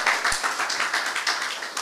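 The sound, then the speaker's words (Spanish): An audience at a sermon claps hands together in a steady, rhythmic beat for the King (God), many claps blending into a dense, bright patter that holds at moderate loudness throughout. No one speaks. “Gloria a Dios, gloria a Dios, dele palmas al rey.”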